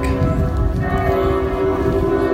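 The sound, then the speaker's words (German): Church bells ring continuously on a village square during a funeral, a dense, resonant peal with overlapping strikes and long humming tones, steady and fairly loud throughout, with no voices. “wir meinten auch gerade hier auf dem Dorfplatz, ja, die Kirchenglocken ist so schönes, schönes Läuten, die Glocken klingen so schön.”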